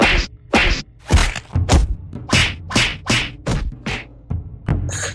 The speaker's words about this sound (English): We're hopping into punching trees. I need that wood. I guess I'm punching some trees.